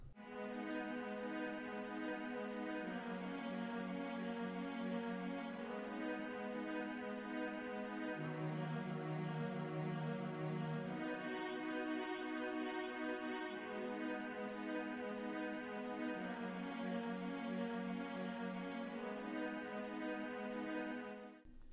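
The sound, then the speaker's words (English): A cello and viola play together, bowing steady, repeating triad arpeggios in a low-to-middle register, the cello on the second note of each triad and the viola on the third, a third above. Their notes step evenly and overlap in warm, sustained harmony for about twenty seconds with no voices. “So basically, the viola is displaying a third, it's displaying that you know two note arpeggio a third above the cello.”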